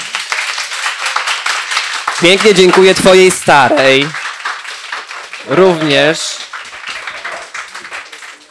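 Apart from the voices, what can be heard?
audience applause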